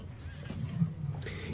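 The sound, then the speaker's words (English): A short horse whinny rises over a low rumble, followed by a quick burst of hoof clatter near the end, all brief and moderately loud. “You load up your gear, hop on your phantom horse, and make it into town.”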